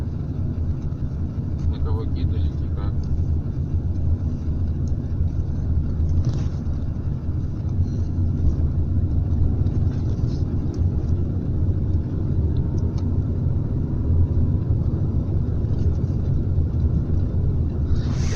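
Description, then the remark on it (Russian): A steady, low rumble of a moving car heard from inside, constant for the whole stretch, with muffled voices faintly audible underneath. “Наручники сними, мне перетянул руку. Останови машину.”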